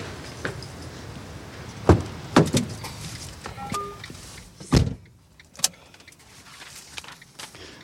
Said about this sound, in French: Ben, allez, on monte dans le camion.